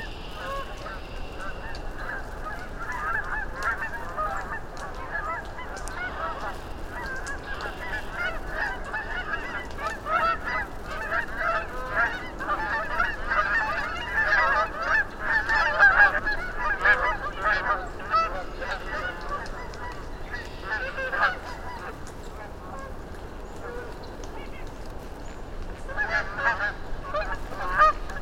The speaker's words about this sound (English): Then, because it's early spring, a flight of Canada geese passed overhead, heading north and calling.